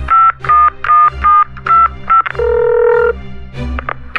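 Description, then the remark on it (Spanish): A quick run of telephone keypad tones as someone dials a call to immigration, six short evenly spaced beeps followed by a longer held tone and a couple more blips, loud with no voices. “Márcale al migra.”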